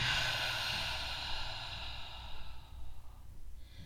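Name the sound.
slow exhale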